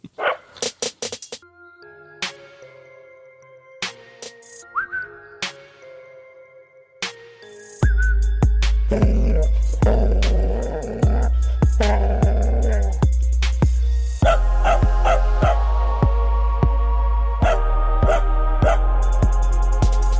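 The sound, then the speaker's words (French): A dachshund sings in drawn-out yips and howls, first alone in short bursts, then alongside loud, bass-heavy music that kicks in partway through and continues steadily to the end. “Et je crois que c'est un Tekel qui chante.”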